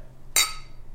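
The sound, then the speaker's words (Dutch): A single bright, sharp clink of glasses touching in a New Year's toast, ringing briefly before fading into quiet with a low background hum. “Zullen we dan gewoon ouderwets gezellig gaan klinken?”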